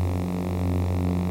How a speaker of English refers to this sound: What you're hearing now is Marshall's recreation of that sound. Ben combined the buzz with the projector hum to create the foundation of the lightsaber.